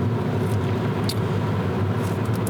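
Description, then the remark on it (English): Steady rumble of car traffic on a road as two cars nearly collide, a continuous low engine and tire roar with faint higher hiss flickering through, and no voices. “Those two cars almost hit.”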